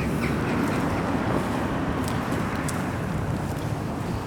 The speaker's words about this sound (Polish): Słuchaj, ciszy nie ma. Na razie spotkałam tak, y, takie dziecko, które przepędzało ptaki tam i krzyczało strasznie, hałas miasta jest. Aha, no i hałas pewnie dworcowy też trochę.